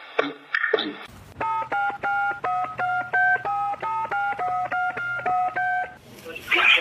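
A rapid, even run of about fourteen telephone keypad dialing tones as a phone call is placed during a Radio Noord broadcast in Amsterdam, each a short clear beep, with a low steady hum underneath and brief noisy sounds before and after.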